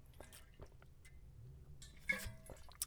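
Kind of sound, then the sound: food or drink, drinking water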